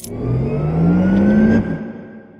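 A Porsche sports car engine revs, its pitch climbing steadily for about a second and a half before abruptly dropping back as the throttle releases, with no voices present.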